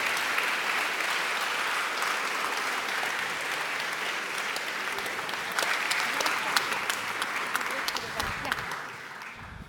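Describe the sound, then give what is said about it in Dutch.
Steady audience applause after a talk, filling the whole stretch, a dense wash of many hands clapping at an even, sustained level, with a few sharper claps standing out near the end as it tapers slightly. “Hartelijk applaus graag.”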